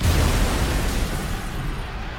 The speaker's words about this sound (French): un bâton de dynamite est lancé sur les policiers.